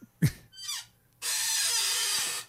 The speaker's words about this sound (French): Je pense que ta chaise crie Aidez-moi.